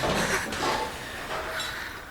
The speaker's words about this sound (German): Ah! ah, was, was ist das? Das, das Haus über uns stürzt ein.